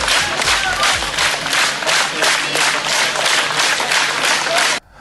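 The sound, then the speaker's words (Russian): A large crowd of workers outside the Minsk Electrotechnical Plant named after Kozlov in Belarus claps hands in a loud, steady rhythm, the dense applause pulsing in unison for several seconds before cutting off abruptly. “На кадрах э, люди стоят возле завода и хлопают в ладоши.”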